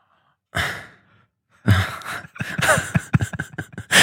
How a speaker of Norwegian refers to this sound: Ok, vent, da. det var bare stønning, det.